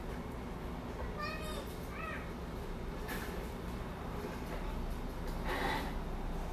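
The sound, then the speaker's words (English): Children's voices carry across a small backyard, a few high-pitched squeals and calls rising over a steady wash of outdoor background noise. “Just listen to those kids over the edge.”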